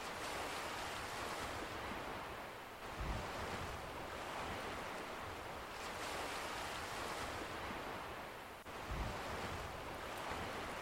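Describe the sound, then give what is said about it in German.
Steady roar of ocean surf breaking on a shore, with waves swelling and crashing in slow cycles about every six seconds, fairly loud, with no voices. “Der Rhythmus der Wellen unterstützt dich dabei, dein komplettes Energiesystem zu reinigen und zu klären.”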